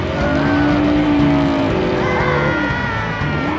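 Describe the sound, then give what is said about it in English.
A loud truck engine revs steadily, its droning pitch climbing and shifting in waves with a faint tire screech mixed in. “with his truck.”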